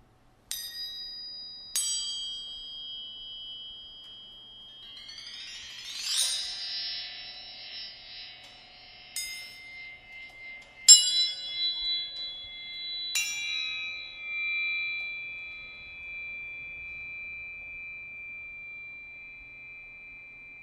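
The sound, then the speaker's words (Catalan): Suspended metal sheets of a sound sculpture struck several times, each hit ringing out in long, shimmering metallic tones that overlap and sustain, moderately loud, with no voices. “el xiulant girant són unes làmines suspeses i poden sonar terriblement fort i són uns sons molt llargs.”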